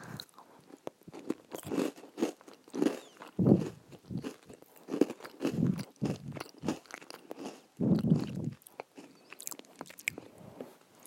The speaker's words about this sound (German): Und jetzt die, den Keks. Und der letzte Biss.